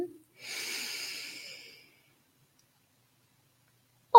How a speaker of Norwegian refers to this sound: Se om du kan trekke et så dypt pust at du fyller ordentlig godt i lungene dine. Puster godt inn. Og puster kraftfullt ut. En gang til. Puster inn.